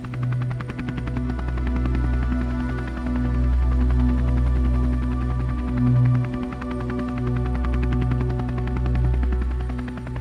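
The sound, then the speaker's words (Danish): A dusty combat helicopter with bullet holes flies overhead, its rapid rotor chop and deep engine drone loud and steady for the whole stretch, with no voices. “Og det er jo så der, der dukker en helikopter op lige pludselig.”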